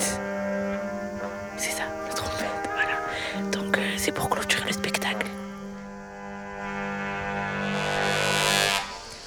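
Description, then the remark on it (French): Five musicians play trumpets outdoors at about 10:30 pm, with a view of mountains and lights, holding long, overlapping notes, with scattered clicks and rustling in the middle before the brass swells louder near the end. “Avec plusieurs lumières, on voit un peu les montagnes et on a 1, 2, 3, 4, 5, musiciens en face de nous qui, qui jouent euh, de la trompette.”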